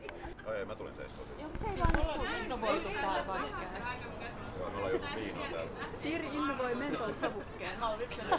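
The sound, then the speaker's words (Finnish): A crowd of people chatting at once on a large outdoor summer terrace at Flemari-kybä, many overlapping voices forming a steady, lively babble, moderately loud, with a brief thump early on. “Täällä onkin jo porukkaa terassilla.”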